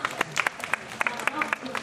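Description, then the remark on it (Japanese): An audience applauds with a quick, uneven burst of sharp hand claps of moderate loudness, some voices murmuring faintly beneath, for the person chosen as today's goalkeeper. “大きな拍手をお願いします”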